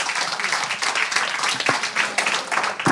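An audience applauds two guests at a discussion event, a dense, crackling wash of many hands clapping at once with no single beat standing out, sustained at an even, fairly loud level throughout.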